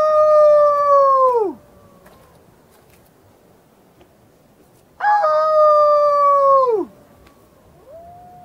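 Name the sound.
wolf howling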